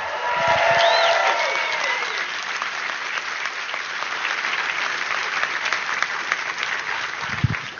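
Audience applause, a steady wash of many hands clapping that stays strong for several seconds, with faint cheers and voices rising over it at the start.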